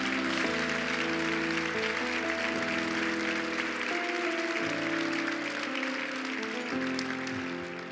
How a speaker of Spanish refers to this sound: Dale más fuerte los aplausos al Señor.